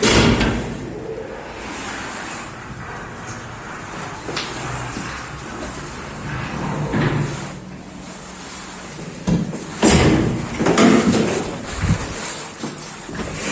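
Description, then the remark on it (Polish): Wooden double doors of an elevator in a stairwell are worked open: a series of dull knocks, clunks and scraping rattles spread over several seconds, with no one talking, above a steady background hum. “Drewniane podwójne drzwi.”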